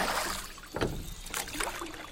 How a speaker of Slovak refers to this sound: Na plávanie je voda už chladná, ale na jazere sa dá aspoň člnkovať – Manželia si požičajú loďku a v dobrej nálade pádlujú k stredu vodnej nádrže.